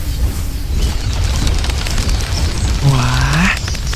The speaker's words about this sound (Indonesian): Namun, mereka mendengar suara gemuruh dan tanah bergetar hebat